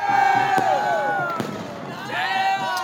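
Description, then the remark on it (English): Sharp firework bangs burst out every second or so over a busy street crowd in Colombo, Sri Lanka, with shrill whistling tones rising and falling through the constant hubbub of voices. “If that doesn't happen, if Sri Lanka's problems don't turn around quickly, these streets could once again be filled with far more than fireworks.”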